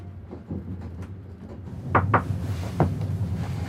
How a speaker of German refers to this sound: Um 6 Uhr klopft es an der Tür.